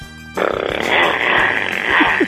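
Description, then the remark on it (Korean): In a voice-impression contest, a contestant's voice imitates a motorcycle engine, a buzzing, rattling drone that kicks in abruptly and holds steady for about two seconds, with a couple of rising revs near the end. “자 오토바이 민주지간 오토바이 들어볼게요.”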